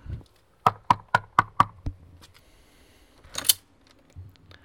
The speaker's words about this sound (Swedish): Så att vi, eh, vi knackar på.